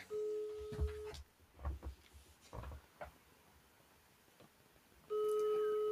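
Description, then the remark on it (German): A telephone ringback tone: two loud, steady, mid-pitched electronic tone bursts about four seconds apart, with a few faint knocks and rustles in the quiet gap between them. “Ich hoffe, er geht dran.”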